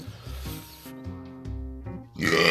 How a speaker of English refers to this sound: Whoa, am I leaving that burp in? No, leave the burp in. I don't care.